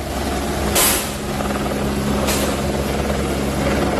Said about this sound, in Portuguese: Isso aí é o momento em que a polícia entrou, ainda com o uso do helicóptero do Graé, para tentar amenizar a situação.